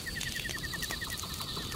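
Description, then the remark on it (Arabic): A huge eagle gives a rapid, steady run of short high chirping calls, about ten per second, with faint clicks and a soft background hiss and no one speaking. “ما أضخم هذا النسر وهو يتكلم كذلك”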